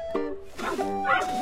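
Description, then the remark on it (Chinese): A small dog gives about three quick, high-pitched yipping barks in a row, fairly loud, with some faint voices mixed in underneath. “走在上学的路上，小朋友们大声嚷嚷，小狗汪汪叫。”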